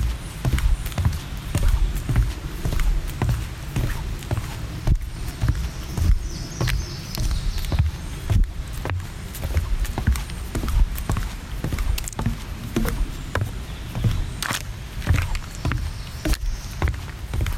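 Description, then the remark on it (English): Steady footsteps thud and knock on the hollow wooden planks of a boardwalk at McCormick's Creek State Park, an even walking rhythm with deep resonant thumps and light outdoor ambience, no voices. “That was Walking on the Boardwalk at McCormick's Creek State Park”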